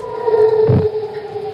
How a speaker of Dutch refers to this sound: dit is, of een beetje wat wij ons voorstellen, dat een hyperloop zou klinken. Ja, want dat moet het vervoersmiddel van de toekomst worden. Met een snelheid van maximaal 1200 km per uur is dan alles ineens een stuk dichterbij.